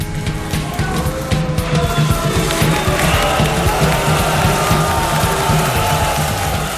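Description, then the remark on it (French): A large audience at a performance of the Revue Nègre reacts to a wild, sensual dance, split between whistling and applauding, in a dense, steady roar of clapping with thin whistles cutting through now and then, sustained and fairly loud throughout. “Et c'est une danse sauvage, mystique, extraordinairement sensuelle et qui laisse pétrifier des stupéfactions le public qui se partagera en deux, ceux qui sifflent et ceux qui applaudissent évidemment.”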